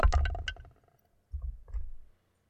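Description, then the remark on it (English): A D20 die is rolled in a D&D game to decide who starts. It clatters and rattles against a hard surface in a quick burst of sharp clicks, followed by a few softer knocks and a low tumbling rumble before settling. “I'm desperately digging in my giant bag for a D20.”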